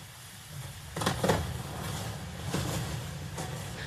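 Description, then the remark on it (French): Glacier ice cracking as an iceberg breaks away: several sharp, irregular snaps and creaks over a constant low rumble, with the loudest cluster early on and fainter cracks afterward. “Voilà, alors vous l'aurez peut-être pas reconnu, hein, mais c'est le craquement que, euh, mais le craquement que vous venez d'écouter, c'est le bruit d'une fissure dans un glacier et donc la naissance d'un iceberg.”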